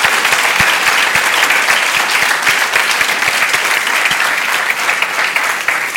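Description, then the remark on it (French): A crowd claps loudly and steadily for several seconds for Méline Camus, founder of Prisme Intelligence, as she is introduced; a dense, sustained wash of applause with scattered sharper individual claps standing out, and no voices heard. “Je vous demande un maximum de bruit pour Méline aussi.”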